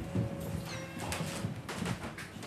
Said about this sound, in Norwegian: Hør åssen det knirker. Det er nok det originale gulvet også.